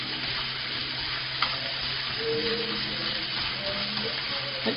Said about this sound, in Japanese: えーと、と豚肉に今半分ぐらいかな火が通ったところでとりあえず塩コショウだけ振ります適当です